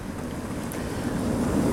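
Sea waves on the empty, off-season beach at Kotka wash in rhythmically as a steady, full-bodied rush of surf noise, heavy in the low end and swelling slightly louder toward the end, with no voices.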